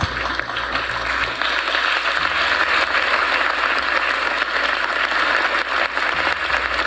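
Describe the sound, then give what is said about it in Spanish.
A crowd applauds steadily, a dense wash of clapping hands that holds at an even loudness for several seconds with no one speaking. “Un aplauso, por favor.”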